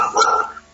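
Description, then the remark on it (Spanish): A neighbour's dog barks once, a short sharp bark at moderate volume that trails off quickly, with no one speaking. “Ah, ese es el perro del vecino que está ladrando.”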